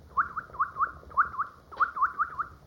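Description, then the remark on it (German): A grandfather, a gifted bird-voice imitator, imitates a bird call with quick, bright whistled chirps, about a dozen short notes in three bursts, clear with no talking. “Da mein Großvater ein begabter Vogelstimmenimitator war, brauchte ich nur auf einen der Vögel zu zeigen, um ihn zu einem anhaltenden Gezwitscher anzuregen.”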